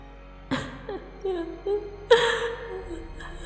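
A woman's faint, thin crying on a rainy night: wavering high whimpers in a few short, breathy bursts, the pitch sliding up and down between sobs.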